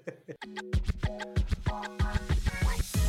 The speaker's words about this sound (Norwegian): Hører du de spisseskoene klirre i gulvet